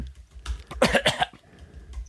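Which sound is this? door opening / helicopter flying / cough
cough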